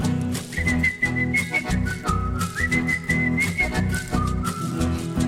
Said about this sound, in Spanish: Clodomiro muy tranquilo de su truco musical, le silbó la cancioncita con toda seguridad.